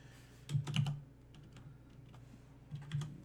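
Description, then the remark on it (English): Rapid computer keyboard typing with sharp clicks as people look something up, a quick cluster of keystrokes followed by scattered softer taps and another burst near the end, fairly quiet, with no talking. “Like I said, if you hear clicking and typing, I apologize. We're looking shit up just just so I can satisfy myself here.”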